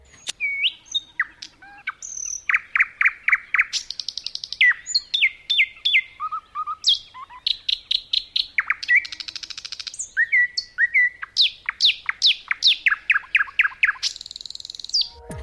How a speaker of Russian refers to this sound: Каждый соловей поет по-своему. При определенной наблюдательности можно научиться различать разных птиц по голосу.